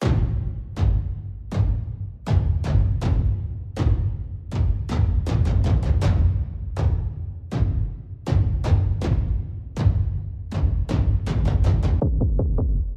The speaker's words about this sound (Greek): Θέλω ένα drum beat για να ρίξω τους τόνους παρακαλώ. Μ, όχι αυτό, Κάτι άλλο σε drum beat έχουμε.